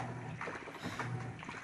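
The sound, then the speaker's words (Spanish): A normal washing machine churns steadily while washing, with water sloshing in irregular surges over a low, continuous motor hum, moderately loud, with no voices. “Este es el sonido de una lavadora normal.”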